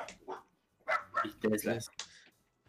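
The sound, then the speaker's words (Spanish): A dog barks several times in quick, uneven bursts, fairly loud, with voices mixed in among the barks. “A ver, a ver, ese perro, ese perro, producción.”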